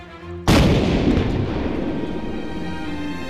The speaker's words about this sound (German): Am Bug der Tankadere stand eine kleine Kanone mit der bei dichtem Nebel Warnschüsse abgegeben werden konnten.